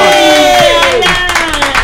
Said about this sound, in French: J'aimerais qu'on fasse un tonnerre d'applaudissements à notre comédien